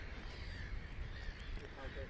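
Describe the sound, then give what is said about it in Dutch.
A huge crowd of birds calls continuously at sunset, around nine in the evening, in windy weather, harsh cawing and chattering overlapping into a steady chorus, with low wind rumble underneath. “De zon zakt. En de lucht is vol met vogel.”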